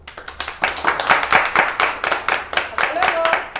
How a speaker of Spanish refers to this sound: Les mandamos un gran abrazo a todos y bueno, un aplauso para todos.